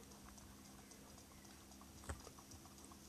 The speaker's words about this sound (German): Und es regnet wieder perfekt.